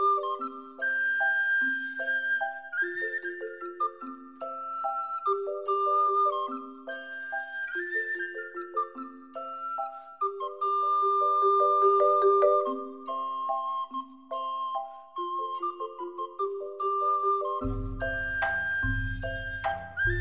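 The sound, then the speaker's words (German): A melody on a flute-like wind instrument moves in steady stepwise notes over a bright, shimmering metallic ring like a triangle, sustained throughout; a low buzzing tone enters near the end. “Ja, pass mal auf, aber jetzt hör mal, im Zusammenspiel mit einer Flöte, da klingt die Triangel so richtig mhm.”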